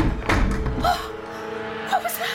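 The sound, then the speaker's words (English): A chair tips over and hits the floor with one sharp, clattering thud near the start. Brief voiced exclamations follow, with a low room hum underneath. “Pick up your chair, we'll have to try again.”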